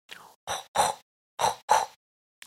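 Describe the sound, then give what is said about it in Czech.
A person imitates a pig with about five short, rough snorting grunts, fairly loud, coming in quick bursts with brief pauses between them, and no talking. “tak většinou, většinou alternativně se vždycky to připodobňuje k tomu prasátku.”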